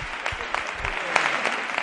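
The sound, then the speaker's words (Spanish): Steady carnival audience applause for a chirigota after its pasodoble dedicated to Andalusia Day, a dense wash of many hands clapping at an even level with small crisp peaks, no voices standing out above it. “el público los aplaude.”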